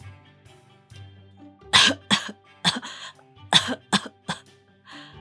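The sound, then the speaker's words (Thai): A child aboard a train coughs repeatedly in a run of about seven sharp, harsh bursts, loud and irregularly spaced, with a softer final cough trailing off; no one speaks. “นั่นคงไม่ใช่ไอกรนหรอกนะ ไหน มาให้แม่จับหน้าผากลูกดูซิ”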